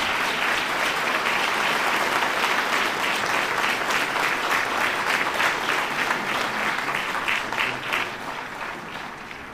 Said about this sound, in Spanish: Qué momento tan bello. Llega la cruz que bendijo San Juan Pablo II. Aplauso a la cruz.